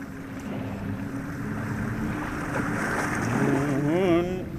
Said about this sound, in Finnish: Vesi kuohui keulassa ja kohina kuului komentosillalle saakka, missä ruorimies pyöritti pienen pientä ruoriratastaan.